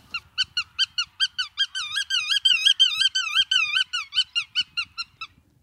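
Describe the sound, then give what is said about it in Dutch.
Black-tailed godwit calls ring out clear at the Kronenmijnen near Niersen in Gelderland, a rapid series of nasal notes that runs together into a wavering, overlapping stretch midway before separating into distinct calls again. No one speaks. “in de kronenmijnen bij het Gelderse Niersen om te luisteren naar zijn verhaal achter het geluid van de gutto.”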